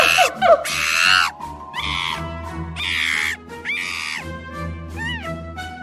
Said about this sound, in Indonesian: Ya, benar sekali. Gerombolan hewan itu adalah si monyet. Para monyet sedang asik menikmati pisang hasil memetik dari pohonnya.